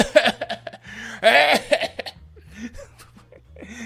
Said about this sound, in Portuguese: Nossa! Eu não vou poder! Tô com uma tosse!